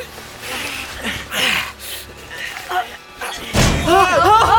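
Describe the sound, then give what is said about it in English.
A single heavy, dull thud of a large metal artillery shell being knocked down as men lift it, loud, followed by urgent voices; muffled talk and movement come before the impact. “Careful, what did I say? The slightest knock and these shells can blow.”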